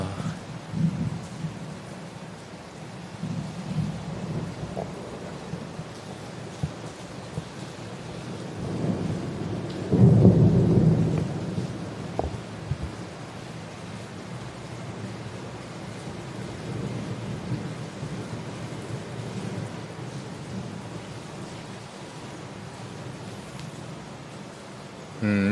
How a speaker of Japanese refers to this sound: おお雷落ちた遠くで雷が落ちました